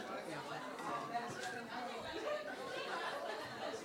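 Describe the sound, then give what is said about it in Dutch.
A steady murmur of several people chatting at once in the background, voices blending into an indistinct hum with a faint chuckle here and there, continuous throughout. “Ik hoorde allemaal groezemoer.”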